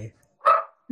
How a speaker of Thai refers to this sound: อันนี้จะได้ยินเสียงหมาเห่า